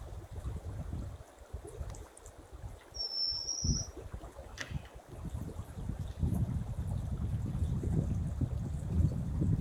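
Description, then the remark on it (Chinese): A single thin, high whistled call of a white-capped redstart (Chaimarrornis leucocephalus) rings out briefly over the steady rush of a mountain stream, followed by a fainter short note; the water noise dominates throughout. “白顶溪鸲 （学名：Chaimarrornis leucocephalus）是雀形目鹟科的鸟类，体长约19厘米，是黑色及栗色溪鸲。”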